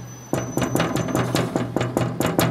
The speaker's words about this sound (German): 10. Bezirk, Räumannplatz, Busstation. Ein Mann will vorne einsteigen, doch die Bustür bleibt wegen Corona zu. Er klopft wild gegen die Scheibe.